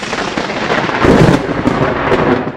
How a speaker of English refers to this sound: The clouds seem disturbed. They become electrified. Lightning flashes in all its majesty and is absorbed by the ring